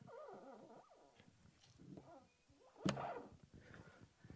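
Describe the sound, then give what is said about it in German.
A single sharp plastic click of a windsurf mast foot, the movable joint on the board, snapping in as the sail is attached, heard midway through a dog's high whining and whimpering. “Dieser Plop, dieser Klick, den machen manche Leute nie.”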